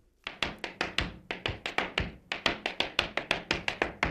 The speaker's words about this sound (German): Du hast auf meinem Handy ein Audio angeschaltet, wo jemand steppt. Ja, ich steppe da.